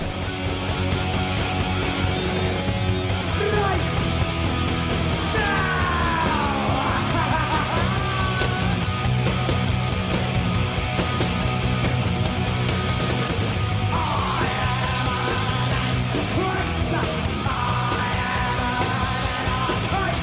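Loud, dense live punk rock band playing at full volume, recorded on a 1996 reunion tour, with a shouted lead vocal over distorted guitars and pounding drums, continuous throughout with a raw concert sound.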